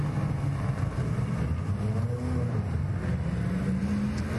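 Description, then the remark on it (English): A 1965 Mustang classic car engine rumbles steadily, its deep throaty drone holding a constant loudness with slight shifts in pitch and no voices over it. “It's a Mustang. 1965 Mustang.”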